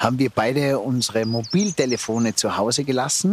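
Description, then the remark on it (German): Birds sing softly in a forest during a walk outdoors, their thin, high chirps and trills drifting in the background along with a rushing stream, while a man talks steadily in the foreground. “Man hört die Vögel, man hört im Hintergrund den Bach rauschen,”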